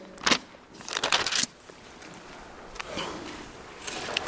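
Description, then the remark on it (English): Papery rustling and crinkling as many thin Bible pages are turned at once by an audience turning to Matthew 28, with bursts of crisp flipping scattered about and a steady soft shuffle in between. “Turn there with me. I love to hear pages turn.”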